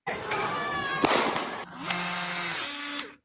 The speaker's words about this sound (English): As Rosenbaum continues to chase Rittenhouse, Ziminski lifts his gun into the air and fires. Ooh, they shoot. The muzzle flash from Ziminski's gunshot can be seen from this angle.